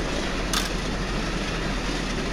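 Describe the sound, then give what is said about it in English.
A train rushes past close by, nearly running someone over, a loud, steady roar of heavy rumble and rattling that fills the whole clip, with a brief sharp hiss near the start and no voices. “You fall to the ground because it, it just, it's just so surprising, and you realize you nearly got run over by a train.”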